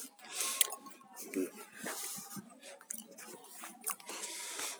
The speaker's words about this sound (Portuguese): Tô mastigando. É uma SMR de paçoca.